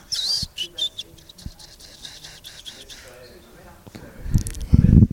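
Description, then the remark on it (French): A cat named Choupette gives a quick run of high, bird-like chirps and trills, fading to softer chirrups, then a louder burst of low rustling near the end. “c'est Choupette, c'est le chat.”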